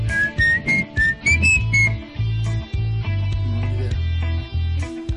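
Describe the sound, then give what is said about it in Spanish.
Someone whistles a short, catchy jingle melody: a quick run of bright, clear notes stepping up and down in the first couple of seconds, over a steady low droning backdrop, with no talking. “Ese que chiflé, ¿qué es?”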